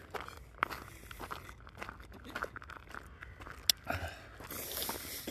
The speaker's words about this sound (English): But with that, another sip of caramel ribbon crunch.